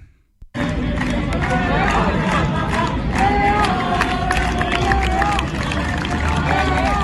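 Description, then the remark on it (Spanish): Brea de Aragón football fans celebrate their team's 0–1 away victory at Arnedo, a loud crowd of many voices shouting and chanting together in a continuous, dense roar that starts abruptly and stays strong throughout. “escuchen cómo celebra la afición de Hebrea una afición, una victoria.”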